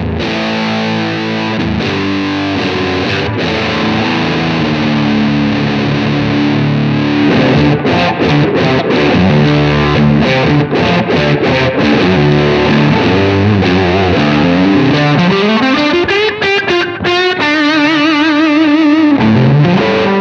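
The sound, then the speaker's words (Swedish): A heavily distorted electric guitar played through a UA Lion amp pedal plays loud, sustained chords and riffs with a thick, saturated tone, including a rising slide near the end, with no voices over it. “Test av UA Lion del 2”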